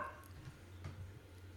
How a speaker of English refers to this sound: My dog's barking. What are you barking at, Luke? Luca. She's a cool dog. Part husky, part red cattle dog.